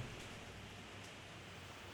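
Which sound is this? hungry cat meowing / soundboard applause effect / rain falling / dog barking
rain falling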